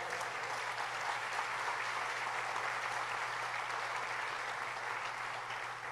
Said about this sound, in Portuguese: Você pode me ajudar aí a celebrar o Senhor com a salva de palmas?